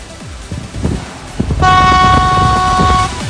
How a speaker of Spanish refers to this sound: Y te mando bocinazo, como siempre.